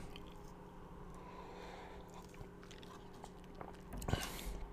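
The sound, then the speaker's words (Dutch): Someone takes a sip of chocolate milk without a straw, straight from the glass. Soft mouth noises lead up to one short, louder slurp near the end, with no talking. “Oké, ik neem nog eventjes een slokje van mijn chocomel zonder rietje.”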